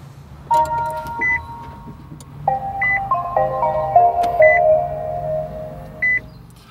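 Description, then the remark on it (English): A car starts up with a short electronic chime melody of sustained tones, accompanied by a low hum and repeated soft beeps, heard from inside the cabin with no talking. “So I'll turn on the car right now and you'll hear some, some music that's played.”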